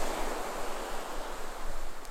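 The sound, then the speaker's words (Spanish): A continuous rushing wash of ocean surf breaking on a desert shore, waves breaking and rolling in a steady roar with gentle swells in loudness. No voices, just the sea filling the scene. “Con el rompimiento de otras escasas olas visualizas una serie de coloridas mantas ondeando en el viento”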